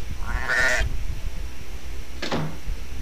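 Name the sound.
sheep bleating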